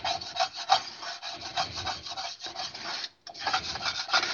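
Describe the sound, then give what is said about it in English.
Rough, continuous scraping of a utensil across the bottom of a Calphalon coated skillet that sausage was fried in, a gritty rasping rhythm of strokes with a brief pause near the end before it resumes, no voices. “just going to scrape the bottom of it real quick.”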